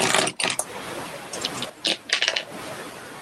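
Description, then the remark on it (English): A bunch of mechanical pencils being handled, with bright plastic clicks and rattles arriving in several short bursts, separated by brief pauses and a soft background hiss. “there's a bunch of pencils, mechanical pencils”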